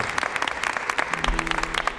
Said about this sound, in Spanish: Así que el primer aplauso de la mañana, por favor, que sea para vosotros mismos y se oiga ahí. Fuerte. Gracias por estar.